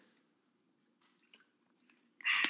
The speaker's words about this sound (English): Just get a drink of water there.